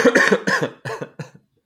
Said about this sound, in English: cough is back, by the way.